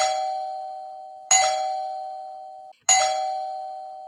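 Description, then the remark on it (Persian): A doorbell chimes three times, each bright ding ringing out and slowly fading before the next, loud with no voices. “همونطور که داشت خونه رو زیر و رو میکرد یکو صدای زنگ در اومد.”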